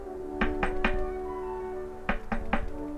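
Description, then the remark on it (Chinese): Two quick sets of three firm knocks on a door, separated by a short pause, over a steady, soft humming tone in the background. No one speaks. “咚咚咚，有人敲门。”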